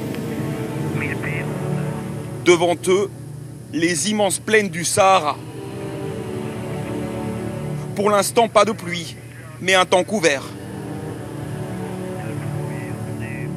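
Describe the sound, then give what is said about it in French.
A steady, low engine drone of a modern aircraft flying over the Sahara at about 1000 feet runs unbroken through the whole clip, with a man speaking in short bursts over the constant hum. “Écoutez justement ce qui se passe quand ils survolent le Sahara”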